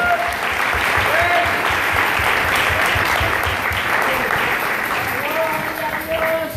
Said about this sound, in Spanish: Denle el aplauso fuerte a Dios.